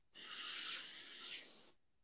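A single slow, deep inhalation during a guided breathing exercise, drawn in through the nose or mouth, a soft airy hiss lasting about a second and a half, fairly quiet, with no talking.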